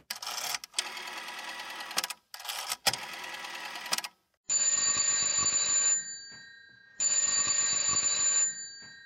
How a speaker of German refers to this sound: Eine ästhetische Erfahrung ist so ein Telefonläuten nicht gerade. Aber was soll das auch sein, ein schönes Geräusch?